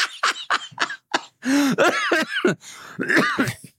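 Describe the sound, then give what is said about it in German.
A quick run of four or five sharp coughs, then a strained fit of hoarse, wheezing coughs and gasps, fairly loud, as someone tries to clear their throat after choking. “oh mein Gott, bitte. Erstickt, Alter, du killst mich gerade.”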